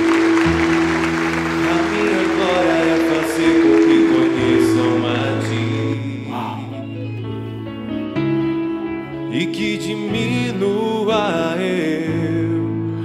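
An audience applauds steadily, a dense wash of clapping mixed under sustained worship music with a deep bass line and held keyboard chords, continuing throughout at a fairly loud level.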